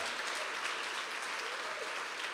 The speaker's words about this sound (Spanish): Eres muy valiosa para Dios, por eso quiero invitarles para que le demos un aplauso a Dios y a cada mujer, porque es maravillosa.